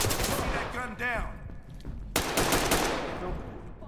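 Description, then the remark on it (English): A video game flashbang grenade goes off with a sudden, sharp bang midway through, followed by a dense, hissing wash of noise amid chaotic gunfire-like clatter and a brief muffled voice. “Äh, open, Flashbang. Open, bang and clear.”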